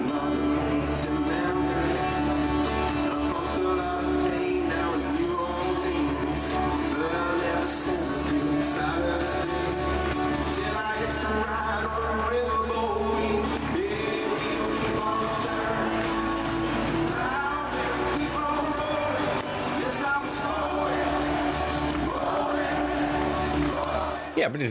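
A live concert performance of a song, with a full band and singing over a constant wash of crowd noise and cheers, staying loud and steady throughout.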